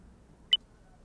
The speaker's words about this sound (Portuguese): A voz do telefone disse: Estou, mãe, Estou, mãe. Sim. E depois parece que o telefone caiu ou a ligação foi interrompida.